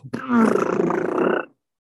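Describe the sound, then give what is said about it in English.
One person blows a long, low, buzzy vocal imitation of a very long, deep fart, like a trombone's deepest note. It is loud, holds for over a second with a rough groaning tone, then stops abruptly into silence. “like a trombone hitting the fucking deepest fucking sound of it could possibly make and it was just a really really long fart”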